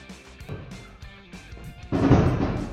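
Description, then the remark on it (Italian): Fireworks booming outside at 6 p.m. while it is still light, heard through a closed door: a scattering of muffled pops and thumps, then a louder, sustained rumbling burst that carries on to the end. “Ecco, stanno facendo con i fuochi d'artificio.”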